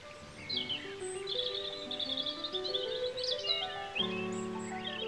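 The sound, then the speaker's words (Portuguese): Small birds in a forest chirp and trill in quick, busy bursts throughout, lively, layered over a soft, steady musical backdrop of sustained tones, with no one speaking. “Eram os passarinhos ensaiando as cantorias.”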